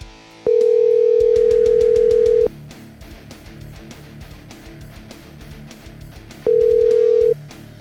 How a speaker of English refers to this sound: It sounds like it's a, a live call because I like to put that ringtone in there.